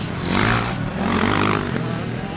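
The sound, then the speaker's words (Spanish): Motorcycles race at a Catalonia Championship event in 1992 in Curvera de Llobregat, a town near Barcelona, Spain, their engines droning and revving steadily with a low harmonic hum and a broad rushing noise, fairly loud and continuous throughout. “Estamos en el año 1992, en un pueblo cerca de Barcelona, Curvera de Llobregat, y esto que se escucha de fondo son motos.”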